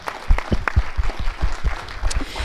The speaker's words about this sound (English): I would like to do another round of applause if you wouldn't mind, because I think you're awesome.